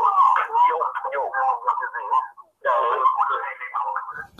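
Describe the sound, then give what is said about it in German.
A thin, band-limited voice of a caller comes through a telephone line in two bursts with a short gap, sounding doubled and echoey, as the caller's voice is heard twice on the line. “Ja, siehst du, jetzt hören wir dich hören wir dich sogar zweimal.”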